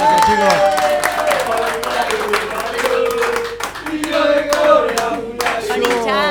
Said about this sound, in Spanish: ¡Aplausos!